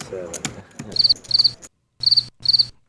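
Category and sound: insect, crickets chirping sound effect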